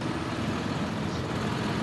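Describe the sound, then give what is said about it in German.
A steady rumble of heavy farm tractor engines idling and moving, agricultural vehicles coming and going, a continuous low drone that holds evenly throughout with no voices. “mittlerweile sieht man ja wirklich nur noch landwirtschaftliche Fahrzeuge”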